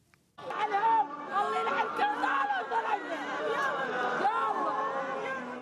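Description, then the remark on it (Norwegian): A large group of grieving women dressed in black in Bahrain, among them a mother of a 17-year-old holding a prayer book, wailing and crying out together, overlapping voices rising and falling in anguished, high-pitched cries that fill the whole stretch without pause. “En mor gråter og roper ut sin nød. Hun holder en bønnebok foran seg og er omsluttet av en stor gruppe sørgende kvinner, alle kledd i sort.”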